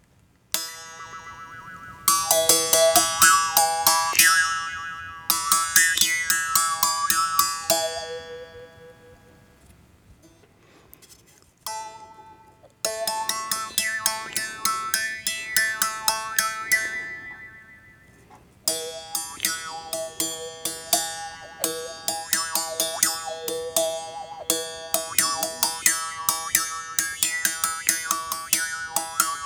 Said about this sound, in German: das ist eine Weiterentwicklung eben auch eines ganz archaischen Instruments. Es ist ein Mundbogen, wir kennen es so von der Maultrommel her